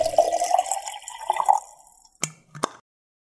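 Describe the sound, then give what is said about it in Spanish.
Water pours steadily into a mate gourd with fresh yerba for about a second and a half, its pitch rising as it fills, followed by two sharp drips or taps, with no voices. “Yerba renovada y agua lista para volver a tomar unos ricos mates”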